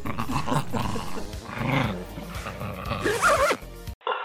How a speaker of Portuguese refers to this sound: Deve ter som de cachorro brigando, sei lá.